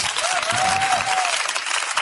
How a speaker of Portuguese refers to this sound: Obrigado, uma salva de palmas para vocês.